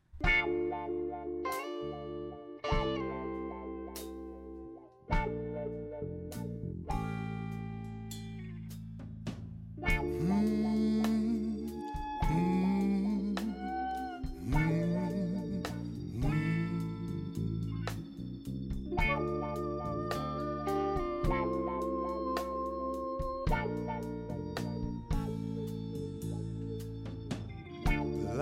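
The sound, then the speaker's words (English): A song plays throughout, with heavily effected, distorted guitar or synth lines over a steady beat and bass, layered with chorus and echo, loud and continuous without any talking. “All right, let's play the next song.”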